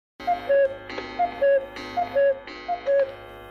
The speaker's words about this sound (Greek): Ο κούκος που ακούσατε δεν μένει μέσα σε ρολόι.